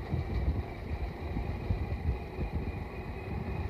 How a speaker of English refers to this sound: Now, number 43. You'll hear his chug as we uh, pass him by. He's one of the very oldest of the cars in the run.